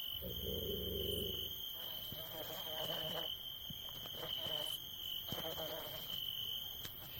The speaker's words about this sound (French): Et les loups au loin, de hurler, occupés, j'imagine, à encercler leur proie.